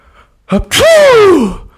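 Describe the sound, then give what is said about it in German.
A person vocally imitates another person's sneeze: a quick sharp intake, then one loud, drawn-out voiced burst whose pitch slides downward before fading. It stands alone, with no talking. “so klingst du immer beim Niesen.”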